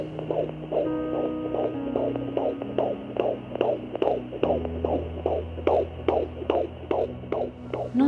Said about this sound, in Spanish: Escucha nuevamente ese pequeño corazón latir con fuerza y que repite en cada palpitar la palabra más hermosa, la palabra mamá.